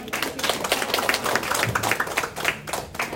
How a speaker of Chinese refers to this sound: 这皮肤擦得多漂亮啊！来，我们给一个热烈掌声。